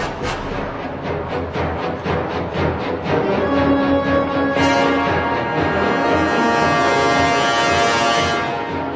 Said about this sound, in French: Alors, dans la bande originale, il y a une mélodie qui est récurrente. Euh, sachez la repérer. Écoutez bien.